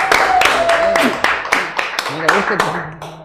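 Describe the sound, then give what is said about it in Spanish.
Audience applause on a studio set welcoming a music composer and producer, a steady run of sharp, evenly spaced claps, about four per second, with voices and tonal sounds continuing underneath throughout. “¡Un aplauso!”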